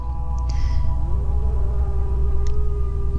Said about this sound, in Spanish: En una ocasión, John y su familia escucharon aullar a un lobo